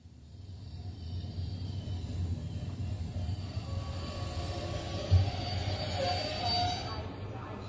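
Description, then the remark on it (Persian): A train rumbles steadily with a low, continuous roar, metal wheels squealing faintly on the rails as it moves through Berlin's Zoo railway station (Bahnhof Zoo), with a brief clunk partway through. “ابتدا آندراس و اکس وارد ایستگاه راه آهن باغ وحش در برلن میشن”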